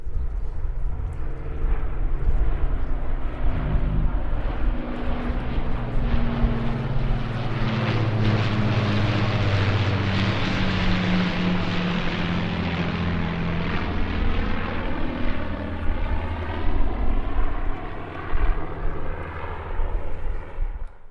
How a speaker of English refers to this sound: As part of the event, the Royal Air Force Battle of Britain Memorial Flight, accompanied by the Irish Aerobatic Display Team, the Silver Swallows, flew in formation across Dublin City and landed at Casement.